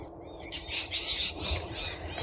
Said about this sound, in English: I'm currently working on the bat conservation area and here we can hear some noise of bats. They haven't started flying until now.